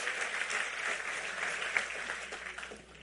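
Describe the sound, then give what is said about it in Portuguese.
An audience applauds God steadily, a dense wash of many hands clapping that holds for a few seconds before thinning slightly at the end, with no voices over it. “Aplauda ele, porque ele é digno.”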